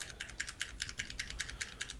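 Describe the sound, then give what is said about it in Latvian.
Rapid, steady keyboard typing, a string of crisp clicking keystrokes in an even rhythm, moderately quiet with no voices. “Kāds kaut ko apēda un iz, iz, izrīja klaviatūru”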